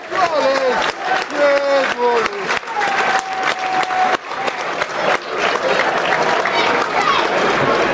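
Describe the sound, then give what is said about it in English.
A large stadium crowd at a match applauds a player, Jed, warming up during the first half, in a dense, continuous wash of clapping that lasts throughout, with scattered shouts and a sustained call rising above the noise. “Good applause.”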